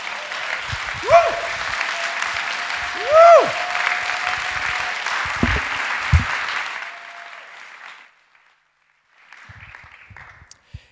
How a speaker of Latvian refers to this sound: Tad, ja tas ir kāds saraksts, tad saraksts paša pirmā pozīcija ir Jēzum Kristum. Dosim viņam aplausu!